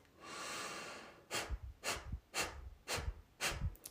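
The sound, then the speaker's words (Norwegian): A long inhale, then five sharp, forceful exhalations through the nose, pumped out by pulling the belly in quickly and hard, in a quick, steady rhythm, each a short breathy puff, clear with no talking. “Så ved å trekke da magen raskt og hardt inn, så pumper vi ut gjennom, luft ut gjennom nesa.”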